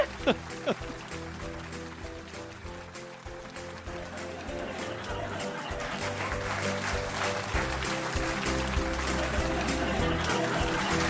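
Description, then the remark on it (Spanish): Dense applause with rapid overlapping claps that grows steadily louder over several seconds, with a faint murmur of voices underneath. “Otro aplauso.”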